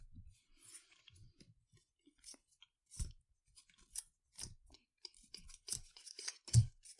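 Wet chewing of watermelon, with irregular crunchy bites and slurpy smacks repeating over several seconds, a louder crunch near the end, no talking.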